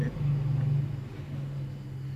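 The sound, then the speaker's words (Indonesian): A motorcycle engine drones steadily, a low, continuous rumbling hum that swells slightly early on and then holds at a fairly even level throughout. “jadi ya karena ini record seadanya jadi banyak suara motor terdengar”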